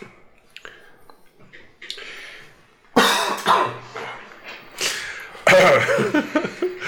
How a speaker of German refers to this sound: Jetzt kriegt man noch nicht mal die Huster mehr raus.